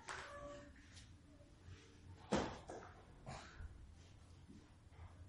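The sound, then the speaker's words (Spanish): A door is opened, with one sharp latch clunk partway through followed by a soft creak and shuffling over low background hum. “¿Alguien puede abrir la puerta?”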